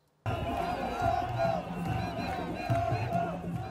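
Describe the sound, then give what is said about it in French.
A large crowd of thousands of Senegalese protesters in the streets of the capital chants an opposition politician's name in loud unison, the rhythmic chant rising and repeating over a dense roar of many voices, steady and unbroken after a sudden start. “Son nom est scandé par la foule.”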